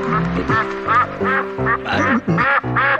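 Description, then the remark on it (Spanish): A duck quacks repeatedly and loudly as it jumps on top of someone, a rapid series of nasal, raspy calls filling the whole stretch with only brief gaps between bursts. “¡Ay, este pato me está brincando encima! No te metas con el pato.”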